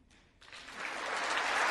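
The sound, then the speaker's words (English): Applause from a large crowd in Congress starts quickly and swells steadily louder, a dense wash of many hands clapping with no voices heard, following a speech line that Bakhmut, a stronghold in eastern Ukraine, still stands. “Yes, that's what we like to hear in Congress. Some jingoism and rhetoric. Clap, clap, clap.”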